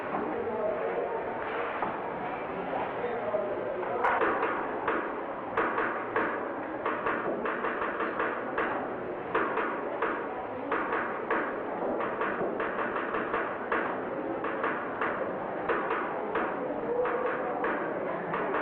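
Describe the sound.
Many knuckles rap on school desks in a classroom in quick, uneven, steady bursts of sharp taps, over a low murmur of voices.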